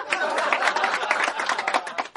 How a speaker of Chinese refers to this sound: …上台鞠躬，马上开说，掌声鼓励鼓励。